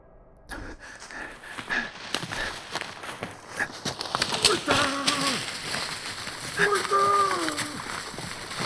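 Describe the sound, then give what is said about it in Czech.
Rapid, uneven thuds of running footsteps on a dark forest path, seemingly on wet or soft ground, with loud shouting voices rising over them partway through. “Za sebou slyším dusot nohou a křik.”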